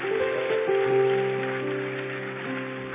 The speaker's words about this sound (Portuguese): Quem recebe, aplauda ele bem forte.